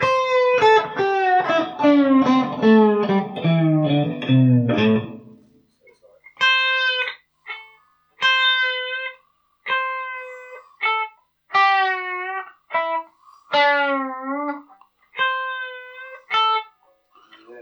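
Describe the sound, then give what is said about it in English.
A gritty, distorted guitar tone, played using the trem arm, glides downward between pitches in a dense opening run, sliding from one note to another, then continues as a series of short, separate notes, some bending slightly, played loud with no talking. “Imagine you're almost like sliding from one note to the other. That's the kind of effect we want.”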